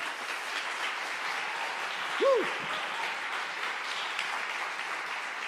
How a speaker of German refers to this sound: Gebt einen tosenden, krassen, fetten Hamburger Applaus.